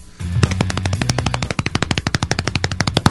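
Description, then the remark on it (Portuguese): A fast drum roll slapped out on a chest: a rapid, steady stream of sharp thumps, about a dozen per second, lasting about three seconds, with a low humming tone underneath during the first half. “Não, vou fazer no peito, tá bom, peraí.”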